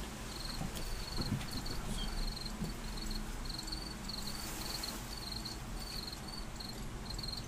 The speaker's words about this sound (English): There's that cricket. I think it's in that bag. In the bush. Is he in the bush?